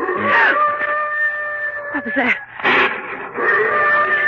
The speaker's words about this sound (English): There it is again. Listen. Do you hear that? Afraid I do. Sounded like an animal howling. Rather big animal. Something one might easily call a beast.